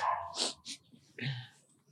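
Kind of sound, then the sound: animal, dog barking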